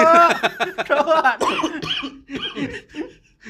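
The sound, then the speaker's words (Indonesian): A loud fit of harsh coughing after inhaling smoke, several rough bursts in quick succession, with a trace of laughter mixed in before it trails off into smaller coughs. “Lu bisa gak sih kalau ngelawak jangan pas gue narik asap lagi. gue udah dua kali batuk nih.”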